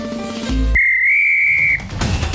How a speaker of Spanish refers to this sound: Ha sonado el pitazo final de este podcast.